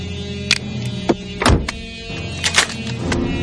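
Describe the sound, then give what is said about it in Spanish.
A police officer shuts his car door with a solid, heavy thunk and readies his shotgun, with a few sharper clicks and knocks spread over a few seconds, with no voices. “White cierra el coche y monta su escopeta.”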